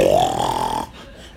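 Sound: person imitating loud snoring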